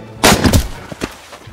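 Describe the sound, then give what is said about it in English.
A loud burst of 20 millimeter cannon fire during a Halloween celebration opens with a powerful blast, followed by a couple of sharper, quieter echoing reports, with no voices. “I think the guys are 20 millimeter or cannon are uh, getting a lot off their chest, and I'm just super excited.”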